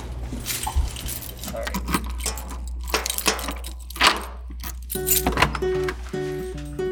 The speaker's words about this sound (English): Okay, I'm gonna open my door.